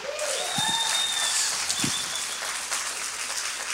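An audience claps steadily for nearly four seconds, a dense patter of many hands at an even loudness, with a few thin high whistles rising above the applause.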